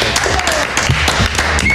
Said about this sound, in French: Allez, bon week-end et on terminera en applaudissant et en remerciant